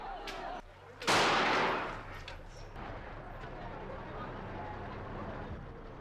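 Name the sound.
distant gunshots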